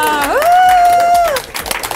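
A crowd claps steadily while one voice lets out a long, rising then sustained cheering whoop that fades after about a second, leaving scattered claps.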